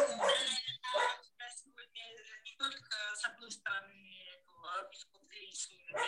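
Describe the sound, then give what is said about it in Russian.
A dog lets out a couple of sharp barks, then keeps up a run of high, wavering whimpers and whines in short, uneven bursts. “А у меня тут собака даже активизировалась от такой оказии.”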